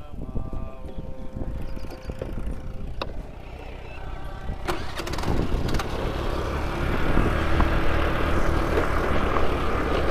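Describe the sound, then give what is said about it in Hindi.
A car engine cranks with a few sharp clicks, then turns over and settles into a steady idle hum that grows slightly louder and continues to the end, as the car is about to set off on a trip, with no talking. “और हम यहाँ से निकलेंगे अभी इस गाड़ी के साथ”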